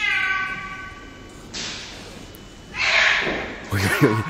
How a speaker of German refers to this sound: Was passiert denn da? Das ist der belgische Künstler Jan Fabre, der schmeißt Katzen die Treppe hoch.